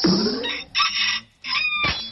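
A short barnyard sound effect: a few squawking chicken clucks followed by a brief rooster crow, loud, with no talking over it.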